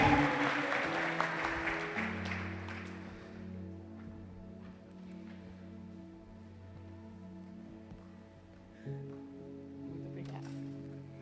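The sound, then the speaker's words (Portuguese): A crowd claps loudly and densely to the Lord for the life of a woman of God, welcoming her, for the first few seconds, then the applause fades away while sustained keyboard chords hold steady underneath and carry on alone. “eu queria que você aplaudisse ao Senhor pela vida dessa mulher de Deus.”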